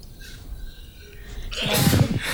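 sneeze

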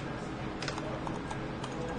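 computer mouse clicking

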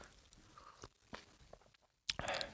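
sip of coffee

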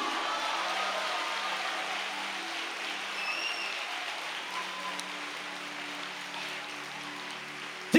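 audience applauding

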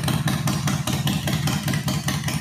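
motorcycle engine sound effect

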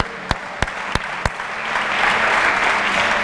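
audience applauding

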